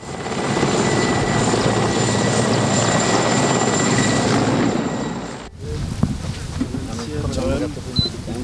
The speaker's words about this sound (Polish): Innym zaś razem śmigłowcem przyleci z samej Warszawy pan minister.